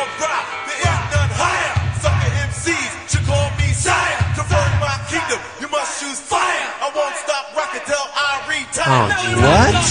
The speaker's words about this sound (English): You know what that is. That's the cat. That's the damn cat. That's the pissed, the pissed off cat. Yeah. I'd be pissed off too if I couldn't get in the bedroom.